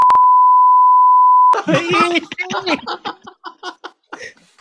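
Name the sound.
censor bleep over speech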